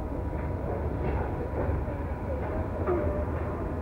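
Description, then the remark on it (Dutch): A train pulls away from a station, its low, steady rumble filling the space, with faint metallic squeaks and clatter rising now and then over the continuous drone. “Ja, we gaan vertrekken.”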